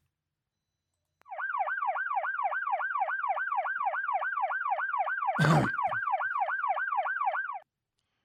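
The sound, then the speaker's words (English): A loud emergency siren warbles in a rapid, steady yelp for about six seconds before cutting off, with a single cough breaking in partway through. “Grooving out to the siren again, huh”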